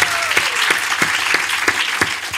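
An audience claps steadily, a dense wash of many hands with a few sharper, louder claps standing out at regular intervals. No one speaks over it.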